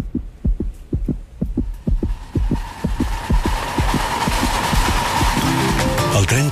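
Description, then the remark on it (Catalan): A fetal heartbeat on an ultrasound monitor: rapid, steady muffled thumps with a whooshing, pulsing wash that grows louder and fuller toward the end. “El que sí que podem fer és sentir el batec del seu cor.”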